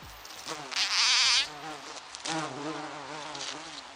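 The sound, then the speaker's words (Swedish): A loud bee buzzing with a wavering, warbling pitch, swelling into a strong burst early on, then continuing as a steady hovering drone to the end, heard alone without talk. “Ja, bin alltså.”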